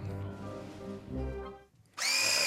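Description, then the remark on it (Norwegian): A hand-held immersion blender with stepless speed setting and turbo button whirs steadily with a shifting motor pitch, then cuts out briefly before a louder, higher-pitched burst of blending starts up. “jeg har et veldig sært forhold til stavmikseren min. Det er derfor jeg står med den i hånda og lager lyd.”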